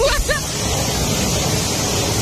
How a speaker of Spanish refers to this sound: ¿No estás escuchando el chaparrazo de agua? Escuchate eso. Parece el río Chachahuala.